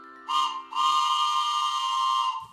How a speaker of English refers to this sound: Oh, I know what that is. It's the Bible train, and it's pulling in town just in time.